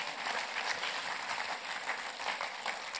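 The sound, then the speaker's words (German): Steady audience applause at an ICF event for the group from Interlaken, a dense crackle of many hands clapping at an even level throughout, with no voices standing out above it. “Ich würde gerne mal so als ICF Tuner diesen Interlaken einfach einen riesen Applaus geben.”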